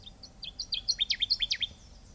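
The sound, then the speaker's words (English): A Connecticut warbler delivers a quick, accelerating series of bright, ringing chirps that grow louder toward the end, rhythmic and clear against a quiet outdoor background with no voices. “the Connecticut warbler carefully conceals itself before making a peep, and even the call itself makes it hard to pinpoint the bird.”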